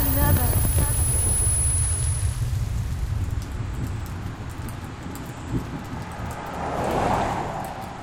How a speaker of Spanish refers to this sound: Yo creo que ya me voy a morir aquí casi no pasan los coches y los que pasan no se paran. Está lloviendo, ya no puedo más, malditos.